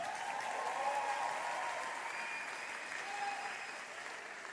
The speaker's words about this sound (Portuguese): Agora você pode aplaudir de novo.